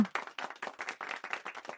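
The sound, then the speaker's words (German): Brief applause: a quick, steady run of sharp, crisp claps, roughly a dozen in under two seconds, moderately loud with no voices over it. “Also erst einmal Applaus hierfür.”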